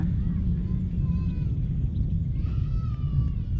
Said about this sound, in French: Il y a du vent, dis donc, au bord du Maroni.